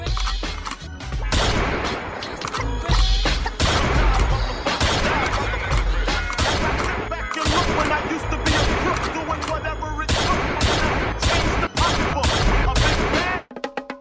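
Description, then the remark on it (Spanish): Loud, rapid bursts of gunfire from a drive-by shooting in Los Angeles on 9 March 1997, fired from a car that pulled alongside the rapper's car at a red light; sharp cracks piling on each other almost nonstop for about thirteen seconds before cutting off abruptly. “mientras conducía su coche junto a unos colegas en Los Ángeles se paró en un semáforo en rojo y de repente apareció un coche que se puso a la altura de … y comenzó un tiroteo.”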